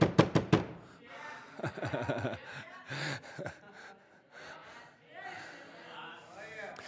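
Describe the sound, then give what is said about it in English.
Four loud, rapid knocks bang out at the start, forceful and evenly spaced, then give way to a voice talking with gasping, breathy sounds. “After a while, I imagine when, jo- when Jesus knocked on hell, it was more of a.”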